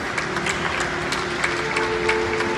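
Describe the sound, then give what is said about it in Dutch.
Steady applause from people clapping continuously on balconies along the streets of Italy for health care workers fighting the coronavirus, echoing outdoors, with a faint sustained tone humming underneath and no talking. “Applaus voor de mensen in de zorgsector die alles op alles zetten in de strijd tegen het coronavirus.”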